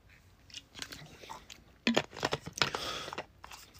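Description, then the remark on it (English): Someone takes a quick sip of water: a run of short, crackly mouth and swallowing noises, soft at first and then louder and busier, with no talking. “I'm going to take a quick drink of water”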